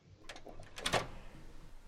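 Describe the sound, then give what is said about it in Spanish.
A door opens: a few quick latch clicks and a rattle, then a louder clunk and creak near the middle, with quiet room noise around it and no talking. “abre la puerta.”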